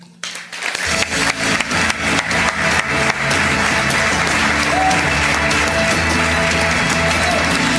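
An audience applauds to welcome a speaker before his talk; the applause swells quickly after a brief quiet start, with dense overlapping claps that settle into a steady, loud roar of clapping lasting several seconds.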